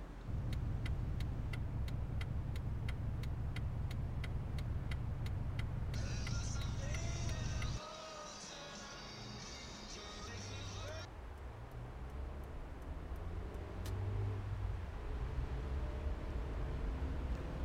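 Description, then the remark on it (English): Steady low road rumble and engine drone from inside a moving car, with a regular ticking during the first few seconds and faint murmuring voices underneath. “the silent murmur of the radio, the sound of the wind pattering against the windshield.”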